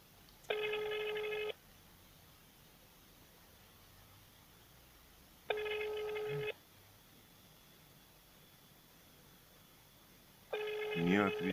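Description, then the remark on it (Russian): A telephone ringing tone sounds three times, each buzzy, steady ring lasting about a second, separated by roughly four-second gaps of quiet line hiss. “Так, звоним.”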